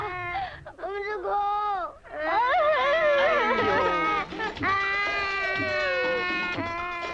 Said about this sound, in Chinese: 哭声和着迪斯科，多么不和谐！可是气氛还真热烈